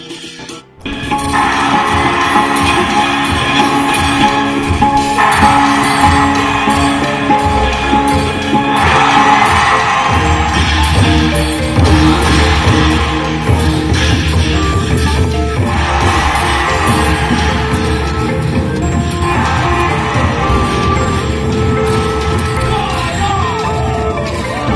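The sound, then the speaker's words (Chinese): A crowd cheers loudly and without pause, a dense roar of many voices yelling and whooping that holds steady for about twenty-five seconds, with no clear words standing out, as people hail the arrival of Premier Zhou. “人们欢呼着：“周总理来了！”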